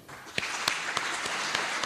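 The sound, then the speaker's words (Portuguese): A crowd breaks into a round of applause, a dense, steady wash of clapping with a few sharper, louder claps popping out every so often, and no voices; asked for on behalf of the Government of Cabo Verde to salute a great Cape Verdean for his contribution to the country's development. “e eu gostaria, eh, em nome do Governo de Cabo Verde e com a permissão de todos aqui, eh, que saudássemos com uma salva de palmas como grande cabo-verdiano que é e pelo seu contributo para o desenvolvimento do nosso país”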